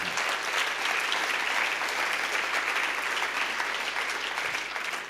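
A crowd applauds steadily, a dense wash of many hands clapping at even loudness throughout, with no voices standing out.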